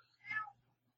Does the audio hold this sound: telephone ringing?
no